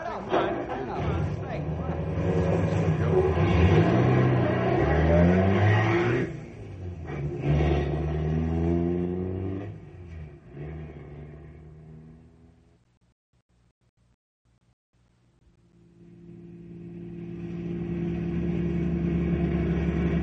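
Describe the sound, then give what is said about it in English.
A car engine revs up loudly with rising and falling pitch, then fades to near silence before a steady engine drone returns as the car drives on. “Get my car. I'll take you”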